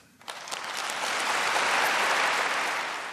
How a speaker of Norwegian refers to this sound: Et fullsett Oslo rådhus jubla for Malala i desember.